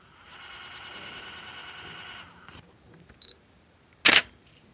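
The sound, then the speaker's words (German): A camera lens fitted with a Canon Power Zoom Adapter PZ-E1 zooms from 18 to 135 mm with a steady motorized whine for about two seconds, then after a couple of quick focus beeps the shutter fires with a single sharp click. “Das Geräusch fängt an mit einem Zoom von 18 auf 135 mm, gefolgt von einer Auslösung.”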